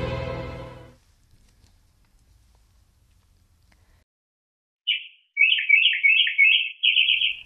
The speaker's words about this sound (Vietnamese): Mình ơi, ra mà xem này, năm nay mùa màng bội thu, tôi vừa mua được đôi chim quý nuôi cho vui nhà vui cửa. Nghe nói loài chim cảnh nuôi có lộc lắm, nó mang lại điềm lành cho mọi người đấy.